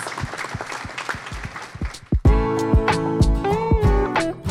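audience applause

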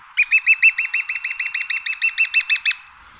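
lesser spotted woodpecker call

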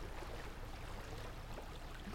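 flowing water

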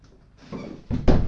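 door being opened

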